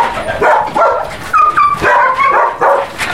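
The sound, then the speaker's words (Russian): Several dogs in the enclosures of an animal shelter bark and yelp over one another in a constant, loud clamor of overlapping barks and high whines, with no talking. “Здесь очень шумно.”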